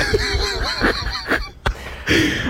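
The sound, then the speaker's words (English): Geese honk repeatedly in a noisy, overlapping chorus, with harsh calls bursting out in quick succession, fairly loud, over a rumbling outdoor background. “You know, the birds are back.”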